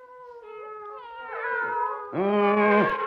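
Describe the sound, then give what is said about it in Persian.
A mother cat and her kittens, put in a sack, meow in a continuous, overlapping stream of drawn-out, wavering cries that grow louder and more insistent toward the end, with no voices. “پر نخورین اینقدر میام میار را نندازین بیچارتون میکنم”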